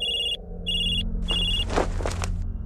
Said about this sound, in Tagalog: Biglang nagring ang cellphone ko.